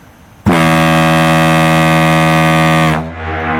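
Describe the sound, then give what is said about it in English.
A single loud, sustained foghorn blast, deep and steady with strong harmonic tones, sounds for about two and a half seconds before cutting off, leaving faint background noise. “oh, that is good foghorn. Oh, yes. Lovely foghorn.”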